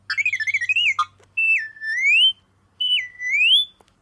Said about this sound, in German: Irgend so ein Programm, Applications-Dingen, mit dem man Star Wars Sounds äh, abspielen kann. Da sind so Bilder von den ganzen Fregels, die im Film mitgespielt haben. Und dann klickt man drauf und dann kommen so lustige Sachen wie oder auch.